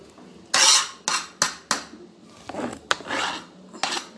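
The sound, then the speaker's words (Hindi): A series of bright clattering, scraping bursts as chopped onions, tomatoes, carrots and coriander are tipped all together into a pot of boiling water, with sharp knocks against the pan and a sizzling rush between them. No one speaks. “एक साथ मैंने सब्जियों को डाल दिया है”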